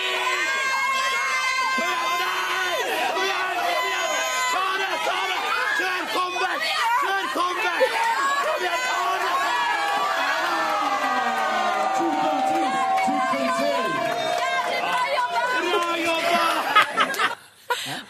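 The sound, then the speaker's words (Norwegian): A cheering squad shouting and cheering together in a dense, continuous roar during a competition for the best cheering squad, with overlapping calls and excited yells that stay loud throughout before cutting off abruptly near the end. “var en parallell konkurranse som gikk ut på hvem var den beste heiagjengen”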